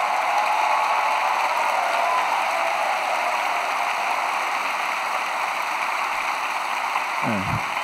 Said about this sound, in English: All our loving crew members and cast members are here with us today. Please send a round of applause to the actors and crew members of Parasite.